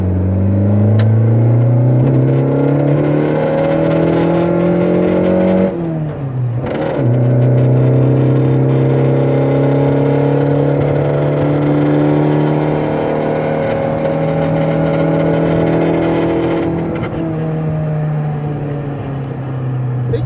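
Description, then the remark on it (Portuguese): A car engine drones loudly for about twenty seconds, revving up as it accelerates, briefly dropping off around a gear change, then pulling steadily again, with no voices. “ela é pesada parada, mas depois que o carro entra em é, movimento, ótimo. fica perfeito, cara.”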